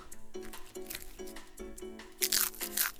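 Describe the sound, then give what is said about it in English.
Cartoonish crunching sound effects, several loud, crisp bites, bunching into a burst near the end, over a steady tonal musical backing with no one speaking. “I don't like hearing the crunchies, even though they're cartoon ones.”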